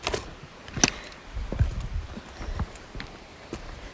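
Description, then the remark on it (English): Footsteps of a person hiking on a rocky trail in Samaria Gorge, Crete, landing in an uneven rhythm with sharp scuffs and knocks over a low outdoor background; no one speaks. “This is the sound of me hiking in Samaria Gorge in Crete.”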